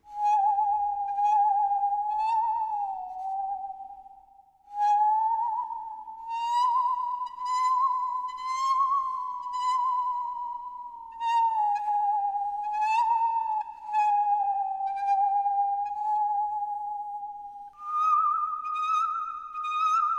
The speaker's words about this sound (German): so eine Säge ist ein vortreffliches Musikinstrument. Was? Das glaubt ihr nicht? Achtung, ich schnapp mir bloß einen Geigenbogen, biege die Säge ein wenig in Form und schon singt meine Säge einen gar schön schauerlichen Süngsäggesang.